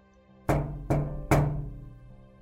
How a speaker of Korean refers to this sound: 이런 노크 소리가 들렸습니다. 패턴이 계속 하고 쉬다가 다시 이런 식으로요.